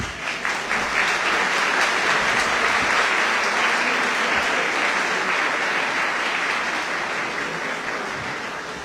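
Sustained applause from an audience, a dense, steady wash of many hands clapping at once that stays loud for the whole stretch and eases off slightly toward the end.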